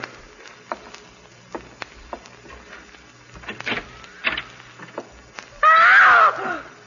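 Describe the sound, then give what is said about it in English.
A series of sharp clicks and knocks as a bedroom door handle is tried, a brief rattle, then a loud, drawn-out creaking squeal as the bedroom door swings open. No one speaks. “i better try the bedroom door.”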